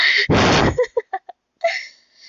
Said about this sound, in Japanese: そう、そんなわけで、今日のね、やつもね、結構息の音入ってると思うつか、今までのやつくっそ息の音入ってたからね、もう一番最初なんかどうよ、雑音だらけよ。